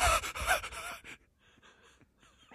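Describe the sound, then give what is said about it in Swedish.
Rapid, hyperactive panting breaths, loud in a quick burst at first, then trailing off into softer, shallower huffs before one more strong breath at the end. “Lite här hispiga liksom. Hyperaktiv andningarna som...”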